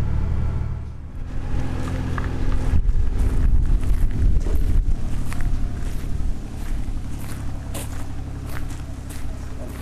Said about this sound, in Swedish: Så här en dag i juli är Själö en vacker och lugn ö. Det enda som bryter tystnaden är traktorn som fraktar varor från förbindelsebåten till universitetets huvudbyggnad, det gamla sjukhuset.